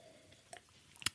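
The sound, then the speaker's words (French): A quiet sip of tea: a soft wet mouth click, then a sharper slurp and swallow a half-second later, with no talking. “Alors, mon kiff, je vais boire une gorgée de thé.”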